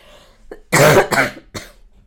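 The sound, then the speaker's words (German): A fairly loud fit of coughing: a brief throat-clearing rasp, then three harsh bursts, the first longest, with short pauses between them and no talking. “ich sag depperte Husten.”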